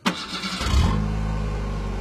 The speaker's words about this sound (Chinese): 红色的老爷车处变不惊，他磕磕绊绊的踩下启动器。